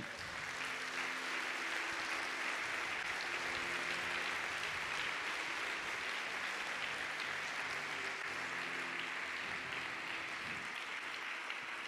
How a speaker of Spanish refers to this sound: Puede dar un aplauso a Dios, por favor.